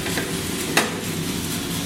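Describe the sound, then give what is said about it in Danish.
Coffee beans rattle and tumble inside the drum of a roasting oven, a steady, dense, hissing clatter with one sharper click partway through. No one speaks. “Og så er der en lille rode her i, øh, i, i ovnen, hvor vi kan se bønderne”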